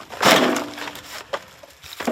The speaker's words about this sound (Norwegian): hentes et nytt lass med ved fra vedskjulet.